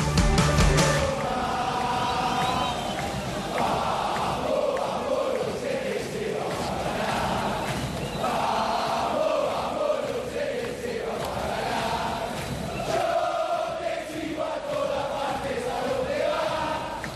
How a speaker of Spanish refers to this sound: Este era el sonido de la bombonera justo antes del partido. Boca River, la final de la Copa Libertadores.